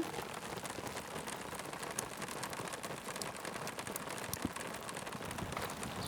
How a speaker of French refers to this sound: Il pleut. Il pleut. Ah, merci ah, Seigneur, on a prié pour ça. Ah, c'est formidable, hein. Et puis ça, ça a l'air d'être de la vraie belle pluie qui mouille.